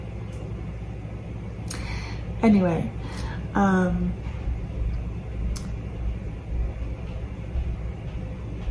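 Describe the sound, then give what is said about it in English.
A washer and dryer running next door drone steadily, a constant low mechanical rumble that fills the whole recording while a person briefly speaks over it. “Like somebody started the, the washer and dryer next door.”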